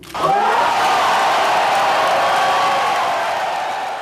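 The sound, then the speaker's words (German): A crowd of thousands in Moutier, Switzerland, erupts in loud, sustained cheering and shouting on 18 June 2017 after the town voted to join the canton of Jura, a dense roar of many voices that swells suddenly and stays at full volume, with whoops rising above the din. “Tausende jubeln, tanzen, feiern.”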